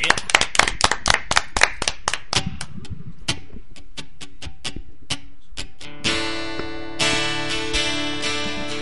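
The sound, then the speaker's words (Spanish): Crisp hand claps from an audience on the radio show Échame la mano, Radio Americano 107.5 FM, quick and loud at first, then thinning to scattered claps before music with sustained tones starts around the last few seconds. “¡Aplauso,”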